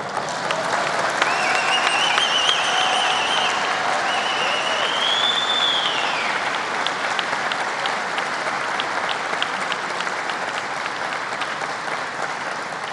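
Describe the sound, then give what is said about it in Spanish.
An audience applauds steadily for several seconds, a dense, even patter of many hands clapping, with a few high whistles rising over it early on. “Otro aplauso.”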